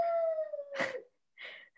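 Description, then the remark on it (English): A dog whines, wanting its bone that was shoved back under the couch: one drawn-out, high, slowly falling whimper, followed by a few short, breathy huffs with brief pauses between them. No one speaks. “Can you hear the dog whining?”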